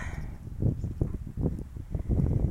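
Wind buffets the microphone in uneven low rumbling gusts while a hand is held in front of the microphone, a muffled roar that swells and fades repeatedly with no voices present.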